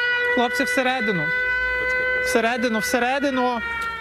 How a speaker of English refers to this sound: As we were talking, alarm. An air raid siren went off.